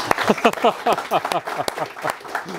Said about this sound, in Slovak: Potlesk.